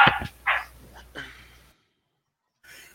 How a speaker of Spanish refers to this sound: Ay, disculpen mis perritos.